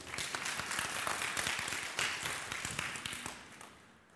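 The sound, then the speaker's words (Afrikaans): A church audience breaks into sustained applause for a group who have just been asked to sit down. Many hands clap densely and steadily for several seconds before tapering off toward the end, with no talking. “Kom ons gee vir hulle 'n lekker hande klap.”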